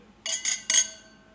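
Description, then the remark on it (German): Wine glasses clink together three times in quick succession in a toast, bright, the last touch ringing out with a clear, fading glassy tone. No voices are heard. “Na dann Prost. Prost, Prost. Zum Wohle.”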